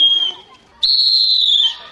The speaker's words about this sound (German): Dann nehmen wir auch eine Trillerpfeife und pfeifen mal, wenn es also ein bisschen weiter weg ist.